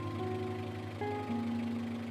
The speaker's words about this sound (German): Der Motor summte gleichmäßig vor sich hin. War er leiser geworden oder hatte ich mich nur an das Geräusch gewöhnt?